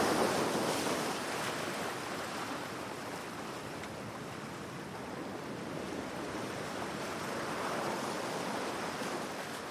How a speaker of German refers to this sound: Du lässt die kühlen Wellen über deine Zehenspitzen tanzen